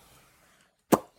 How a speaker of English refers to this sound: Pop the bottle. Let's do it.